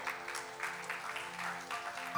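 An audience applauds the Lord during a sermon, a dense, continuous wash of clapping with no pauses, fairly loud and sustained throughout.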